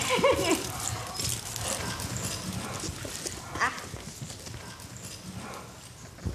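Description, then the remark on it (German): A horse's hooves clip-clop in a steady, rhythmic pattern at moderate volume over a continuous outdoor background hiss. “Ja, und jetzt hinstellen auf ein Pferd.”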